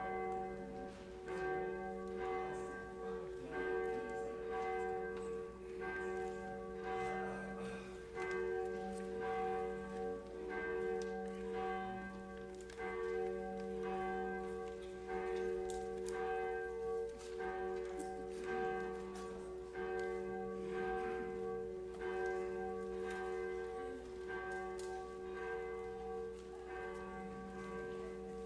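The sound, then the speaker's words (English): A church bell rings continuously and fairly loudly, its rich sustained tones layering into a steady, resonant peal that fills the whole stretch without any talking. “there's the bell.”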